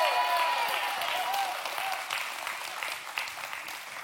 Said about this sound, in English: so if you love this church can you please just give somewhat of a hoopla or something like that like a like a round of applause or something